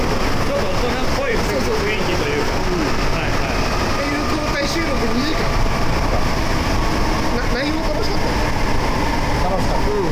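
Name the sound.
subway train interior rumble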